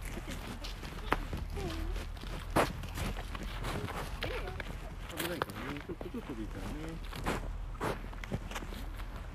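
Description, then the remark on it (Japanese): Short, quick footsteps shuffle along in a steady patter of small steps as a child walks like a penguin without slipping, with an adult's voice speaking over them and a low rumble underneath. “滑らないで歩けたね。”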